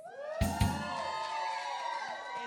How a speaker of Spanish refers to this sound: Y como el público sí está vivo esta noche, pues demos un grito de invocación también hacia los propios demonios para los ….